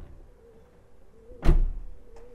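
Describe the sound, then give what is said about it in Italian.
A single heavy car door thud, fairly loud, with a short rumbling decay, then a faint click a moment later against a quiet, low background hum; a car door being opened and closed with its handle. “Questa invece è la portiera che si apre e si chiude con la maniglia.”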